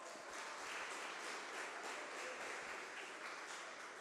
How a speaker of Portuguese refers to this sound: Aplauda ao Senhor Jesus Cristo bem alto.